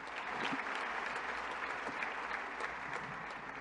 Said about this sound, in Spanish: Eso merece un aplauso, señores. Eso merece un aplauso, señores.